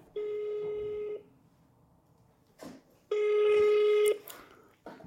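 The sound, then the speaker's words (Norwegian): Two long electronic ringback tones sound on a phone line, each about a second, separated by a pause with faint background noise and a brief click, as a call is placed to a police lawyer's superior to ask about a request for access to records. “Det her begynner å bli en stund siden, så jeg lurer på om vi bare skal ringe hun og høre hva som skjer.”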